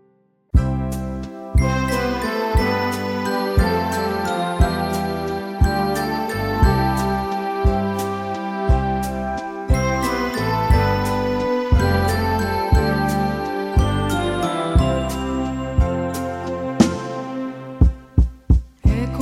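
Instrumental intro to a Portuguese-language worship song, played before a reading of the word of God: bright, chiming keyboard tones over a steady pulsing beat, with no voices, closing on a few separate accented notes.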